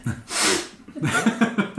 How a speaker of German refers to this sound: Da hatte ich auch, ich, auch so schlimmes Schniefen.